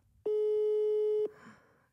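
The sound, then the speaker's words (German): A single steady telephone ringback tone sounds for about a second, loud and clear, then cuts off, leaving only faint background noise as the call goes unanswered. “Come on, nimm ab, nimm ab, nimm ab, nimm ab.”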